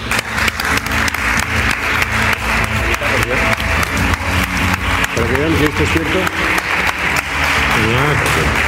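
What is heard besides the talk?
audience applause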